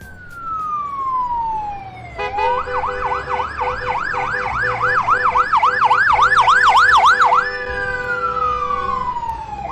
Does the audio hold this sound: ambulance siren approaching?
yes